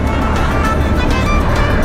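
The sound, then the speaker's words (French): Loud, steady road rumble of huge Iranian trucks passing on a road in Armenia, a deep engine drone and broad tire roar holding constant throughout without a clear approach or fade. “On pousse encore plus au sud, on croise des énormes camions iraniens qui font une grosse fumée noire en traversant le pays.”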